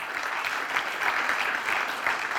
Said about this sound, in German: Gebt ihr einen Applaus.